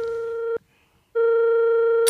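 A telephone rings with a loud, steady electronic buzzing tone: one short burst, a brief pause, then a longer second burst. No one speaks.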